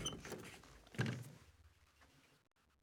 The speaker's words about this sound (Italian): Va a chiudere la finestra, Genoveffa.